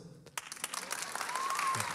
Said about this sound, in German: So, Applaus ja.